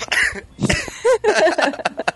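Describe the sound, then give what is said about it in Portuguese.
A couple of short, harsh coughs, mixed in with murmuring voices and a bit of laughter-like vocalizing. “Tossiu, hein?”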